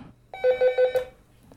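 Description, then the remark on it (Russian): A telephone at a workplace rings with a quick run of four bright electronic beeps, then stops, leaving only a faint low background hum and no talking. “О, уже звонят. Я же на рабочем месте нахожусь.”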